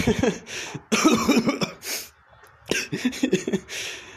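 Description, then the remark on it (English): A woman chokes on a cigarette, coughing and sputtering in a series of harsh, choking bursts, fairly loud, with brief gasping pauses between fits that trail into breathy, laugh-like coughs. “She chokes on the cigarette and laughs.”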